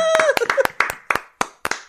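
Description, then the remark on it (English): A short round of hand clapping as the speakers applaud themselves at the end of a show, about ten sharp claps in an uneven rhythm, with a brief cheerful voice at the start that fades as the clapping continues. “Hey, wait, we got to give ourselves a round of yes, applause.”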